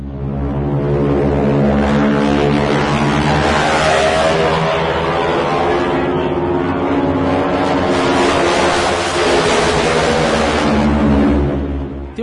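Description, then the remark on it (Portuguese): A T-6 propeller plane's engine roars loudly and continuously in a dive, its propeller tips going supersonic, a dense, buzzing drone with strong harmonic whine that holds steady for about twelve seconds, with no voices. “Aí depois pode colocar na edição aí o barulho do, do motor do T-6 no mergulho.”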